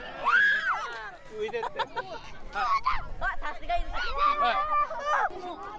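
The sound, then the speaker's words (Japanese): A crowd of primary school children squeal and cheer excitedly in the mud during a rice-planting class in Ofunato, their high voices overlapping in loud, lively bursts, with a faint low splashing rumble underneath midway through. “大船渡での田植えの様子をぜひ聞いてくださいさあこれから田植えが始まりますああ泥気持ちよさそう子供たちの泥の歓声を聞いてください”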